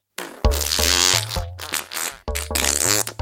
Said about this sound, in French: Les enfants avancèrent dans l'usine et commencèrent à entendre des petits bruits de proutes.